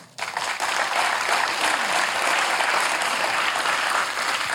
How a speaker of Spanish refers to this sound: Démosle un aplauso al Señor.